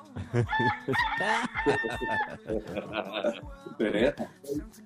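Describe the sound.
A person's voice does a loud, drawn-out rooster crow imitation near the start, followed by several people talking and laughing.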